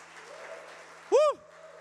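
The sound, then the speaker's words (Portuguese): A crowd claps loudly for Jesus, a steady, dense wash of applause throughout, briefly topped midway by a loud, rising-and-falling vocal shout. “Aplauda Jesus bem alto.”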